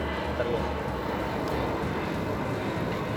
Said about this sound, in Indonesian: Eh, tapi sorry nih ada pesawat. Biasanya di rumah tuh banyak.